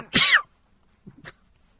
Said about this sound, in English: it's hilarious, isn't it? Hilarious, honestly. Only I could sneeze on the radio and make it into a feature.